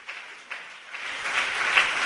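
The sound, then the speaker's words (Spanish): An audience claps together, a dense, steady patter of many hands that swells slightly louder toward the end, with no one speaking. “Ahora sí ve que el aplauso suena más bonito.”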